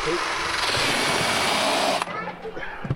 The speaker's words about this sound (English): This is the fun bit with the drill, and this That's is where it.